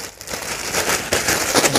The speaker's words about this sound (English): All right, and shake, shake, shake. Shake, shake, shake. Shake your paper clips. Okay, now they're starting to turn. Can you see that? I don't know if you can see through the bag, but.